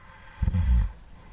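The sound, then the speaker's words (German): A single low, rumbling snore lasting about half a second, a guttural vibrating rasp from a recorded snoring archive, with quiet room tone before and after. “Peter Strickmann hat ein Schnarcharchiv entwickelt und die Geräusche in seine Kunstprojekte eingebaut.”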